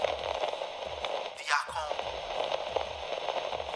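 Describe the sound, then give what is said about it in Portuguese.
Steady radio static hisses and crackles throughout, with scattered pops and a brief warbling squeal near the middle, like a receiver drifting between stations. “Mais um intervalo de estática.”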